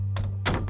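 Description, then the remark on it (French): A cabin door is flung open from the inside, banging with two quick, loud thuds, the second heavier than the first, over a steady low hum. No one speaks. “C'est le bruit de la porte de sa cabine s'ouvrant à la volée qui l'extirpa du sommeil.”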